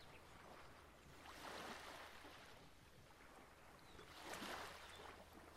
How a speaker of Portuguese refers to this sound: Sinto o balanço que esse mar de trás, o sentimento, o barulho que as águas trazem.